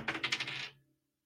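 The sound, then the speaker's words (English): A quick clatter of dice tumbling across a hard surface, several sharp rattling clicks in fast succession before they settle and fall silent. Fairly loud, with no talking. The dice are rolled to pick a sports betting money line. “We soon find out from the money line dice in three, in two, in one.”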